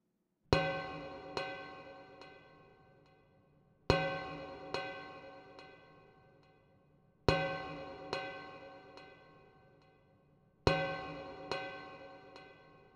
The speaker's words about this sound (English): While that, in and of itself, doesn't sound so convincing, if we add some creative EQ, large reverb, and delay, we have an excellent recreation of a deep, ringing bell, perfect for adding some dark, somber ambiance to our track.